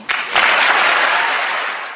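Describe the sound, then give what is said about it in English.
A crowd bursts into loud applause, a dense wash of clapping that swells quickly and holds steady for about two seconds before starting to ease off. “She knows what to say to get applause, and she knows how to get people to support her.”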